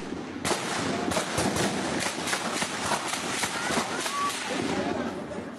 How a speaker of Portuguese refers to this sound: Os sons dos helicópteros e dos tiros prevaleceram na comunidade do Salgueiro, em São Gonçalo, região metropolitana do Rio.